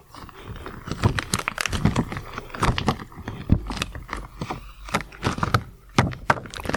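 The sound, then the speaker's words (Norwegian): Crisp rubbery snaps and stretching crinkles as latex gloves are pulled onto hands, a busy run of sharp squeaks and slaps with no talking. “Eh, det er jo nesten halve fetisjen i seg selv, er denne lyden her av latekshansker.”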